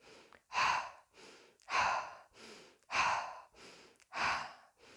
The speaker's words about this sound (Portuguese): E qualquer medo que você tiver do seu próprio poder, mulher, vamos respirar agora.